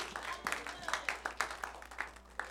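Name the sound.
audience clapping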